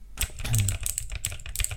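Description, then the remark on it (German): Rapid typing on a PC keyboard, given as a short ASMR demonstration, with a steady clatter of many sharp keystrokes over nearly two seconds, crisp and fairly loud, with no voices. “Nein, jetzt habe ich mir die zweite Tastatur geholt und ich habe meinen PC wieder auf meinen Tisch gestellt.”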